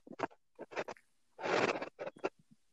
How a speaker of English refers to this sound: he didn't think we could hear him. Tater chip. Oh, whatever it is, it got some crunch on it.